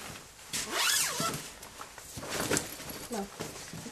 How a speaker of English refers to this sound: zip that up